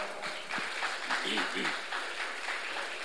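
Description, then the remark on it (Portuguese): An audience applauds the Lord after a Bible reading, a dense, steady wash of clapping for about three seconds, while a voice talks faintly underneath. “Podem se assentar, aplaudindo ao Senhor por essa palavra.”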